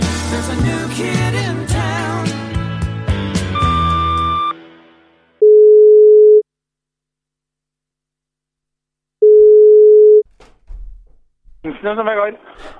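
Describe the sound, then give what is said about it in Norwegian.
Two long, steady ringback tones of an outgoing phone call to a restaurant in Trondheim sound about four seconds apart after a burst of music fades out, and a voice answers at the end. “Nå skal vi høre åssen det gikk når jeg ringte til Egon restaurant i Trondheim.”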